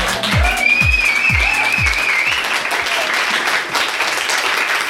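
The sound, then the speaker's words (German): A live audience applauds loudly and steadily, dense clapping filling the whole stretch, with a few low rhythmic thumps early on and a faint whistle riding over the noise. “Vielen lieben Dank. Ein wundervolles Publikum heute wieder hier.”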